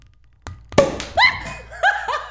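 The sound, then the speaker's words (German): A sparkling wine cork pops out and flies up to the ceiling with a single sharp, loud crack, preceded by a faint click and followed by excited voices exclaiming and laughing. “Der ging tatsächlich an die Decke.”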